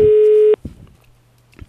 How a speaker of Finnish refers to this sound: Ainakin puhelin soi lupaavasti.